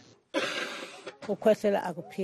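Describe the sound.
A young girl with a long-standing cough coughs once, a rough and fairly loud burst, followed by a voice speaking or babbling briefly, in Massakane, Mpumalanga, South Africa, beside the Duvha coal power station.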